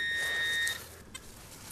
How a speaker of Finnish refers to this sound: Onko tuo sun metalli, tai tuo piippari nyt sitten jollakin tavalla säädetty niin, että se hälyttää vain tiettyjä asioita vai kaikki?